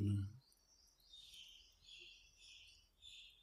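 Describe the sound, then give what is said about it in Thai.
Birds chirp steadily outside, their high, twittering calls running in overlapping bursts after a brief murmur of voice at the start. “มันแค่เสียงที่เข้ามากระทบถ้าเราสัญญามันก็จะขูดมาว่ามันเป็นเสียงของนก เราเอาคำว่านกออกไป มันคือแค่เสียงการปรุงแต่งมันก็จะหยุด”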